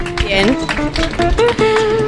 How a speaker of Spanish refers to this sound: Aplausos.